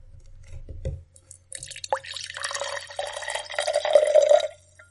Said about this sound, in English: What you're now hearing is the rum. I am now going to pour this slowly into my glass.